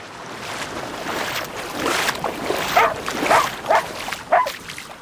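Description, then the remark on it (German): A tiny female dog yaps anxiously in the distance while running back and forth at the water line of a beach, four thin, high barks spaced about half a second apart over a steady rush of water and wind. “Winzig ist die Hündin, dünn ihr ängstliches Gebell.”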